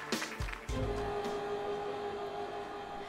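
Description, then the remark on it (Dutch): The heavy metal door of a meters-long wind tunnel closes with a few loud, booming clunks in quick succession, followed by a steady mechanical hum ringing on with echo, in a shed on the TU Eindhoven campus in Eindhoven, Netherlands. “Wat je hier hoort is het dichtgaan van een meterslange windtunnel die hier ergens achteraf in een loods op de campus van de TU Eindhoven staat.”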